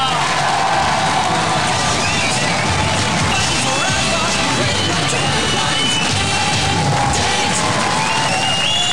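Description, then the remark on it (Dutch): An enthusiastic studio audience cheers and shouts loudly and continuously, a dense wall of whoops and crowd noise that holds steady for the whole stretch, with no single voice standing out. “Zo, veel publiek hoor enthousiast, hè?”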